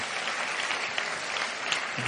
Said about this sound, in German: Applaus für unsere Darsteller.